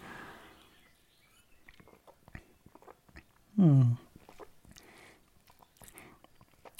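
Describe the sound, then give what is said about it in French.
Quiet mouth sounds of someone who has poured and is sipping a homemade fermented fruit kefir drink, soft wet clicks and swallows, broken midway by a short, loud hum of approval. “Je me verse la boisson et je bois une gorgée.”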